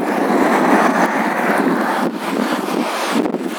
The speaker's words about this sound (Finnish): Kuunnelkaa, kuunnelkaa luontoääniä. Tota, Tossa olisi tommonen sähköpotkulauta.